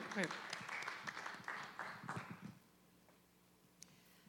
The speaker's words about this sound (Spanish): Dele fuerte palmas al Señor, amado hermano, aleluya, con todo su corazón.